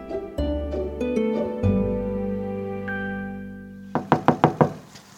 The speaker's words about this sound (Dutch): klaar moet kloppen, want de bel doet het niet